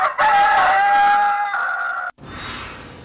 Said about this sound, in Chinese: 可是当人们走到院里西边的一个角落时，男人们打算到老太太生前最喜欢坐的晒太阳的摇椅周围走上一圈忽然滴了不少血、快奄奄一息的大公鸡一下子发出了凄厉的嘶鸣声。